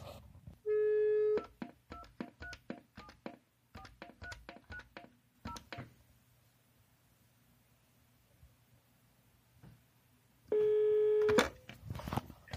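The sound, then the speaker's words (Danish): A telephone line gives a short steady tone, then a quick run of keypad dialing beeps, a quiet pause, and one ringback tone of an outgoing call placed from an old landline phone. No voices. “så jeg ringer lige til Johan”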